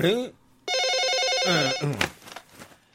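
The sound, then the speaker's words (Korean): A telephone rings with a loud, warbling electronic trill lasting about a second, with a person's voice speaking briefly just before and right after the ring. “전화 왔어, 전화.”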